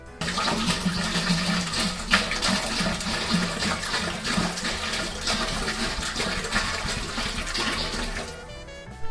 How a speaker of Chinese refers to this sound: 刚才呢，就是声音，就是我在把这个烧水桶里面加水的声音。我们在磨麦芽的时候呢，同时可以把啊糖化用的水先烧起来。